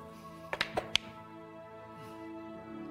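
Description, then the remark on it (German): Dice, rolled for a 'Motiv erkennen' (sense motive) check, clatter across a hard surface in four quick, sharp clicks within about half a second, then settle into quiet with a faint steady hum underneath. “Motiv erkennen. ja, Würfel.”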